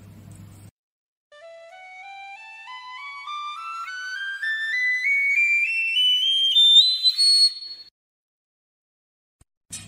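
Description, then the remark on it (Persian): A piccolo plays a steady ascending series of notes, climbing step by step from its lowest register to piercing high tones over about six seconds, bright and clear with no talking over it. “نمونه صوتیش رو تهیه کردیم که وسعت صوتی رو به شما نشون بدیم حالا با هم وسعت صوتی فلوت پیکولو رو میشنویم که از زیرترین تا بم... از بمترین تا زیرترین نوت هایی که پیکولو میتونه اجرا کنه چقدره چه رنجی داره”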